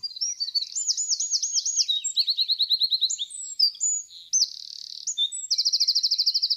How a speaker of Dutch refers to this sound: Eerst een vogel zoals die normaal klinkt.